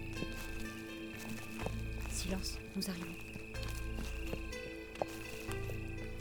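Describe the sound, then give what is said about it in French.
The hooves of a ridden horse clop steadily at a walking pace under a low, sustained droning background, while a voice speaks briefly over the hoofbeats. “Cesse de t'agiter, tu effraies ton cheval.”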